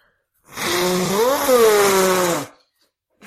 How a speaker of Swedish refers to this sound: nu har jag fått höra nu när jag var sjuk att jag snyter mig så himla grovt